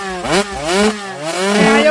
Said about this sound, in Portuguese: eu tinha uma moto, uma 125, eu tirei o um miolo, aí liguei ela, peguei uma liga e amarrei o punho até o final. Aí deixei ligar, porque é bicho pra fazer zoada, é uma moto sem miolo